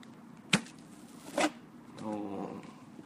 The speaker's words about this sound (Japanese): 熱湯5分、うんはい、作っていきます、はいまずここのあの開ける音をカップ麺やなカップ麺の開ける音